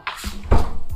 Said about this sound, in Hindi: okay sorry बाहर से शोर आ रहा तो मैंने गेट बंद कर दिया है